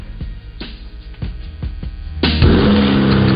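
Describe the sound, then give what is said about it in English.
A 2023 Chevy Silverado pickup truck's turbocharged high-output engine rumbles with a few low, throaty pulses, then surges into a loud, sustained roar as it revs hard, with no voices. “That's the sound of the 2023 Chevy Silverado's turbo high output engine, delivering impressive power with no compromised durability.”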